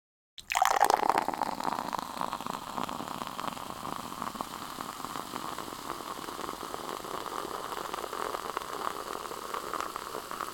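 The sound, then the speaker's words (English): Fizz Up lemon soda, a product of South Africa, pours from a 300 ml can into a glass, the whole can just barely fitting; a steady fizzing, bubbling rush that starts abruptly and continues, with no talking. “The whole 300 mil goes into the glass, although just barely.”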